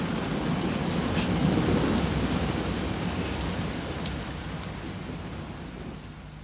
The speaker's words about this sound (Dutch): Dat onweer gaat toch weer voorbij? Nee, niet waar. Het gaat eeuwig zo door.